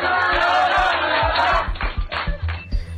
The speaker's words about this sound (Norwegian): Her hører du XXL-ansatte juble etter konkurrentens konkurs. Mens de klapper og hopper i ring med en kake i midten.